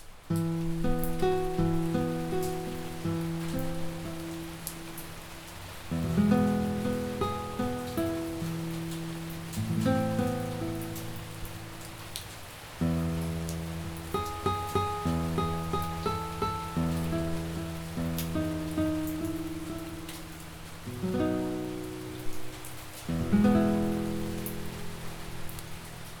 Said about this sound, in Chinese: OK，我们刚刚听到这就是用吉他，然后搭上下雨的声音。